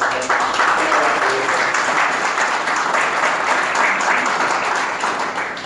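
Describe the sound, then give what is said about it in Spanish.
Sustained applause from an audience, requested for two mentors, a dense, steady wash of many hands clapping at an even loudness for several seconds, with no speech over it. “para que les pido un aplauso, por favor.”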